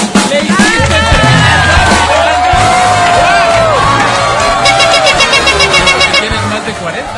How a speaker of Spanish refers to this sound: Gracias a ti por cantar, gracias por terminar rápido además. Bienvenida. Este aplauso es para ti.